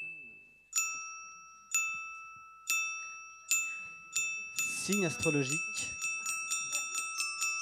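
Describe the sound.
A bright quiz-show chime rings in evenly spaced, ringing strikes, then speeds into a rapid run of tones, with a voice briefly speaking over the middle.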